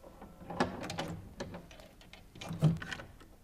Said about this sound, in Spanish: Serían las diez cuando sonaron golpes en la puerta de la casa.